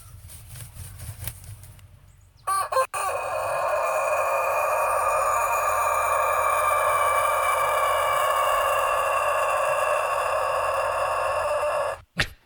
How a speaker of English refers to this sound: Uh, there's a death metal rooster. Have you heard this guy?